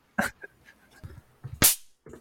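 A very large white electric mosquito swatter zaps a mosquito with sharp, crackling snaps: two loud bright bursts, the second strongest, separated by a few softer clicks and thumps, with no one speaking.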